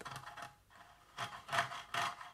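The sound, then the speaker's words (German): Repeated short scratching strokes, fairly loud, in an irregular rhythm of about five bursts, made to sound like a mouse scrabbling; no one speaks. “Das ist das, das, ist das Mäuschen. Hörst du's? Ein feines, feines Mäuschen.”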